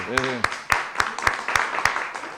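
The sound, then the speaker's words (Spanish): Audience applause: a dense, steady wash of many hands clapping, with a strong, regular rhythmic clap beating through it, and a brief vocal cry near the start. “Se está esforzando muchísimo, lo quiero reconocer públicamente y yo sí pediría un, aplauso por ella porque lo está haciendo muy bien, ¿eh?”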